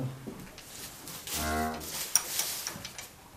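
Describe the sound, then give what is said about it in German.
A single drawn-out moo from cattle in a barn where a live, healthy calf has just been born sounds partway through, over a steady rustling background with a few faint knocks. No one speaks. “Es ist ein lebendes Kalb. Schön gesund, alles dran.”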